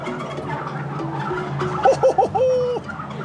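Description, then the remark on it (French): A turkey gobbles once, a quick rattling burst of warbled notes in the middle, clear above a steady low background hum. “parce que dans le prochain épisode, on parle de dindon. Oh oui, de dindon, mes amis.”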